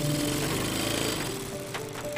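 A steady mechanical whir with fast, regular needle-like ticking runs throughout, fairly loud, from a sewing machine stitching continuously as a woman feeds fabric through it at a dining table in a small house in rural Pembrokeshire, with rain beating on the window outside.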